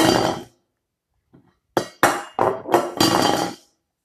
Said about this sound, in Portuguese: Por um descuido, Maria balançou a mesa e fez que a panela caísse no chão.